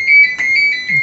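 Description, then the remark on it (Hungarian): A phone rings fairly loud, a bright electronic tone warbling in short repeated bursts with a slight pause between pulses, no talking over it. “Jaj, ez a telefon.”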